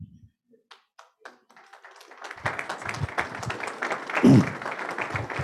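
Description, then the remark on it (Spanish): Warm applause from a standing crowd welcoming former president and Central American Parliament member Jimmy Morales: a few scattered claps at first, quickly swelling into a dense, steady round of clapping that stays loud to the end, with a brief low thump near the close. “Con esta oración y puestos de pies, recibimos con el más cálido aplauso al señor presidente, expresidente y ahora parlamentario del Congreso de Centroamérica, doctor Jimmy Morales.”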